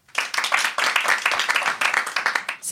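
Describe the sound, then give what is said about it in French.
A crowd breaks into steady applause, many hands clapping in a dense, continuous patter for a few seconds, fairly loud and without any voices over it; the men in the audience clap to answer whether they have stomach trouble. “Est-ce que dans les hommes qui sont dans la salle, par applaudissement, qui est malade du ventre”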